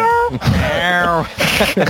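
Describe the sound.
A person imitates a small cat's meow, a high, wavering mew rising and falling across about two seconds, fairly loud, followed by a brief breathy vocal tail.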